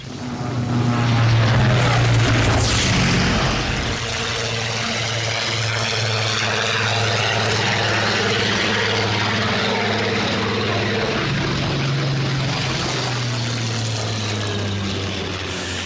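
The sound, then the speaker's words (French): A propeller aircraft flown by French pilots roars past at over 350 km/h after taking off from Shoreham-by-Sea near Brighton, heading for the east coast of the Manche, its engine drone loud and steady with a strong low hum and a brief rising whine early on, without any voices. “Ces Français viennent de décoller de Shoreham by Sea, près de Brighton.”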